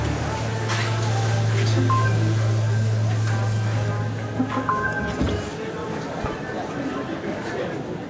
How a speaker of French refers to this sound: C'est très caractéristique de, de ça, ce funiculaire. ça donne une impression très urbaine en fait de cette station. On pourrait se croire dans un hall de métro, quoi, plus ou moins.